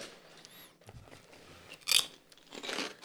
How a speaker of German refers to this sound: Genau, wir machen es wie immer. Ähm, ich unterhalte euch ein bisschen und damit ihr das Knuspergeräusch nicht zu arg hört.